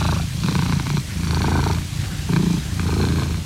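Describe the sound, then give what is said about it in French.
A sleeping domestic cat purrs steadily, a low rumbling motor sound pulsing in a regular rhythm of breaths in and out, with no voices present. “Petit chat, il dort. Petit chat. est tout mignon.”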